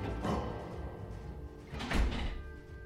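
Two dull knocks on a door, spaced well apart, sound muffled and slightly distant against a low background hum, with no voices.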